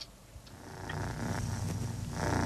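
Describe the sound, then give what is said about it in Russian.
A cat purring, a steady low rumbling vibration that swells slightly louder toward the end, with no voices over it. “Да, это урчание кота.”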